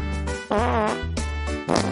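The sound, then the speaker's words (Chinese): Loud, buzzy fart noises from a cartoon character after eating lots of sweet potatoes, in a rapid string of about four or five bursts, each a low raspy rumble with wobbling pitch, with no talking. “哥哥，你能不能不要放屁了？”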